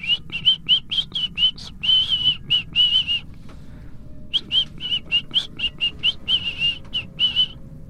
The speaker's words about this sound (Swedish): Ni hör liksom hur det ekar utav visslingarna